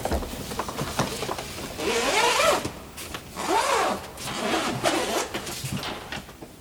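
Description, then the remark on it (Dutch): A zipper on a violin case is pulled open in two long, raspy drags and a shorter third one, fairly loud, with no one talking. “Wil je hem al eh, openmaken en aan mij laten zien?”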